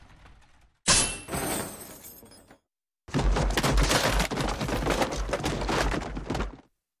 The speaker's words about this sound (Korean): 그러자 쇠사슬이 끊어지고 수레가 깨져버렸다.